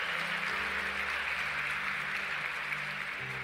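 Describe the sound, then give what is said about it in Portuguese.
A crowd applauds steadily for a few seconds to celebrate a marriage proposal, a dense, even patter of many hands clapping, while low sustained musical tones hum underneath. “Dá uma salva de palmas para isso, gente.”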